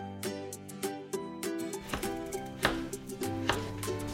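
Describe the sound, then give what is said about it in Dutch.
A knife chops an onion on a cutting board, with about a dozen crisp taps in an uneven rhythm over a steady tonal hum in the background. “Even kijken, laat maar eens een uitje snijden.”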